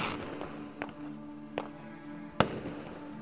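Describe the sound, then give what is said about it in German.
Fireworks going off at a celebration, lighting the sky in bright colors: three sharp bangs less than a second apart, the last the loudest, with a thin whistling streak between them over a steady low rumble of background noise. “Die Geräuschkulisse ist brachial und laut, knallend, in unregelmäßigen Abständen.”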